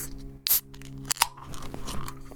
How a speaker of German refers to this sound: Aber ich würde sagen, machen wir die Dose auf